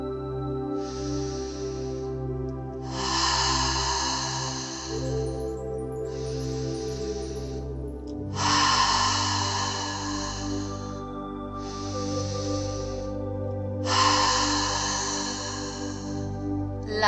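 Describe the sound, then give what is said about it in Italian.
Slow, deep breaths repeat in a steady cycle, each airy inhale followed by a longer exhale, over a soft, sustained musical drone. “Crea un unico circolo di respiro e di amore. Inspiro rosa, espiro bianco”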